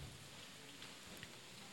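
light drizzling rain

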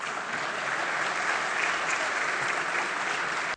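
applause in parliament

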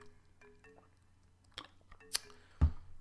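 sip

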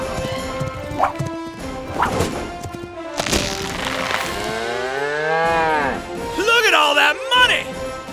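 cow mooing

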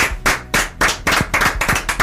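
applause

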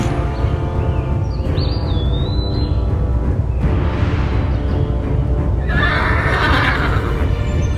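horse neighing and galloping

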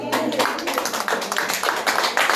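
audience clapping hands

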